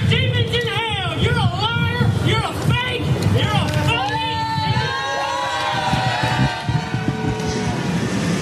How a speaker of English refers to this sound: so you could hear the crowd obviously was not pleased with what he was saying and did support law enforcement escorting the man out.